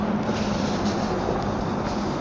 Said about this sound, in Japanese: 今ほら車の往来の音が結構ね、入ってきてるかと思います。ガンガン走ってますからね。えー、福岡からあの南、熊本の方に向かって車が今、じゃんじゃか走ってる感じであります。